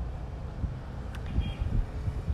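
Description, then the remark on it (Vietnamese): Steady whooshing air noise from an electric fan in a room with the window open, with a low rumble of passing street traffic outside and occasional brief swells, fairly quiet overall and with no voices. “hello không biết là mình um, thu âm thế này nó có ổn hay không vì mình đang ngồi ở trước máy quạt và mở cửa sổ phòng mình nên là tiếng xe ở ngoài nó khá là ồn nhưng mà mình hy vọng là vào đây nó vẫn ổn”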